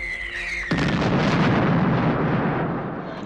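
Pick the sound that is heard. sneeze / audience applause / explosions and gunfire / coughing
explosions and gunfire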